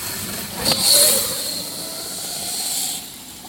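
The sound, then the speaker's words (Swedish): A motorcycle roars past on its second pass, its engine noise swelling sharply in the first second and then lingering as a steady, high-pitched whine that fades toward the end. “nu kommer den här motorcykeln igen. Nu står vi nog i vägen. Det Kommer att blåsa förbi oss här.”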